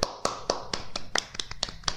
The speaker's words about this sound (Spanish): Les pusimos aplauso? No, bueno, aplaudamos a la gente.